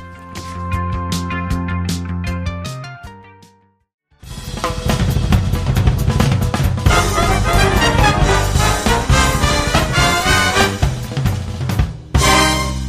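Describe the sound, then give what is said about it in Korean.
A pop song plays loudly, opening with a sustained synth-keyboard intro, a brief pause, then a full band kicks in with driving drums and bright instruments at steady, energetic volume. “네, 이 노래 들어야죠.”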